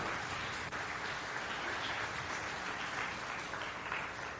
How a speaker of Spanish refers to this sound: Amén. Démosle palmas al Rey, pues. Aleluya.